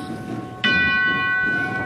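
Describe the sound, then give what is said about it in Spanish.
A single tubular bell of the marching band of Las Tres Caídas de la Esperanza de Triana is struck sharply and rings on with bright, sustained metallic overtones, loud over a low background rumble. “Suena la campana tubular de la banda de las tres caídas de la Esperanza de Triana.”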